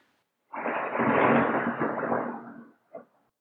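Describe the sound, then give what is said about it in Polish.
A sudden rumble of thunder rolls in, broad and low, swelling for about two seconds before fading, followed by a brief softer thump. No one speaks. “No i tu był e, znowu grzmot.”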